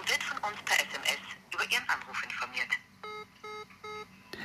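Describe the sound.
People talk briefly, then a phone on speakerphone plays a call tone: a series of short, evenly spaced electronic beeps, fairly loud and slightly tinny, repeating in a steady rhythm.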